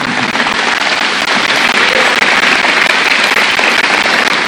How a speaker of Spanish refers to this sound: Denle un aplauso de gratitud al Señor.